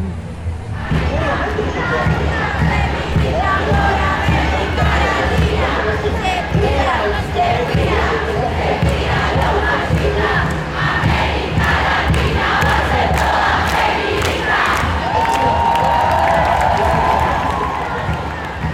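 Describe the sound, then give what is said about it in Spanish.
A huge outdoor crowd of thousands in a plaza roars and cheers without pause, with scattered shouts, claps and voices blending into one dense wall of noise, at 3 in the morning during the final Senate speeches on legal abortion; a shrill whistle-like tone rises briefly near the end. “Estamos escuchando los discursos finales en la plaza con miles de personas.”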